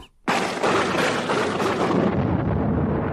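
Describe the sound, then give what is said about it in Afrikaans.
A loud, sudden thunderclap bursts out of near silence, then rolls into a dense, crackling rumble that stays strong for a few seconds. No voices are heard. “Daar is weer 'n harde slag en Tinus val op die grond neer.”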